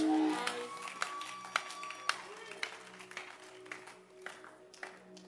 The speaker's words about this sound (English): I'm excited in church. I love church. I clap my hands in church.